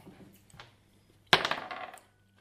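Dice clatter onto a hard table, a sharp burst of rattling clicks that bounce and settle over about half a second, with faint background noise before.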